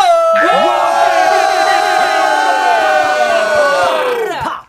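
A crowd of fans shouts and cheers loudly and continuously, a dense wall of high-pitched voices screaming together for several seconds before cutting off abruptly.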